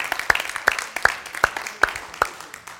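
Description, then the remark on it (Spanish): Audience applause: a dense patter of lighter clapping runs throughout, with six loud, sharp claps landing at a steady, even pace above it. No one speaks. “Amén, pueden aplaudir.”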